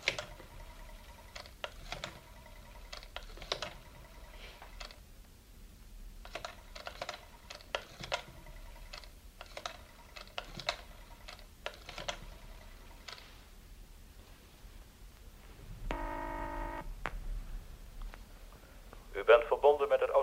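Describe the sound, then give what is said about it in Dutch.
Someone dials a telephone that stands in the hall, calling their director: bursts of quick mechanical clicks in short runs with pauses between, followed by a brief steady tone and then a louder buzzing tone at the end. “Maar dan wil ik wel even mijn directeur bellen.”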